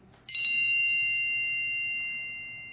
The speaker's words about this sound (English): That is my phone that has just gone off. I have been placing notes on my iPhone that I hardly ever reference and this week I forgot to turn off the dinghy notice, and that is my sister in law from New Jersey, probably wishing me a happy Father's Day.